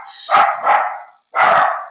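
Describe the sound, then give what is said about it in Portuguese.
A small dog barks three times in quick, sharp bursts, loud, the first two back to back and the third after a brief pause, in a consulting office as she is being picked up. “a Amy vai latir”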